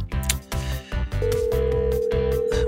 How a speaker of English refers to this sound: one, one ringy dingy, two ringy dingies.